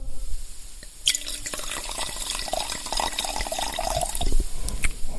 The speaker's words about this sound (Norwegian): Fordi at hvis de hadde lagt den uten fat, så tror jeg den hadde blitt veldig, veldig veldig syrlig, men ved å avrunde litt på fat og få litt sånn rund smørfedme i seg, så virker det ganske fristende. Så jeg får helle litt i glasset, da.